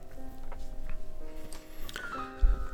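Padlocks being unlocked and keys jangling, heard through a door peephole as the door is opened: irregular metallic clicks and light rattles over a steady low hum, with a sharper clunk near the end and no voices.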